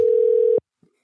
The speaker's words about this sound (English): Oh, here it's ringing.